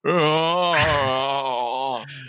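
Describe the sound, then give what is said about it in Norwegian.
A voice imitates Mullah Krekar wailing in tears: one loud, sustained, wavering moan held for about two seconds, with a brief break in pitch partway through. “Og der er noen som mulla Krekar skulle gråte, og gråt, lyden hans var en slags”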